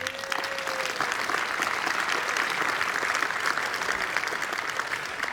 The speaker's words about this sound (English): How about a round of applause for the.